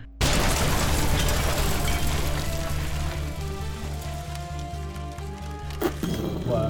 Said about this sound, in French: Il y en a un qui fuit par la porte, il réfléchit plus. Pourtant, il t'a vu mettre le piège, mais là, il y pense plus. et il fait tout péter. Pas par là, abruti je me jette derrière mon lit. Oh Explosion.